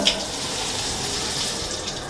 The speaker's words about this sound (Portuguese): Lava bem a cabeça, cabeça mais para baixo para o chuveiro.